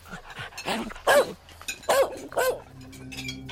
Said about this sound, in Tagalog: bigla akong natigilan sa malakas na alulong ng aso.